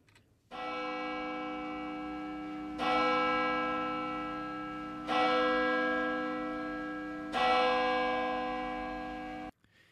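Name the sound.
church bells ringing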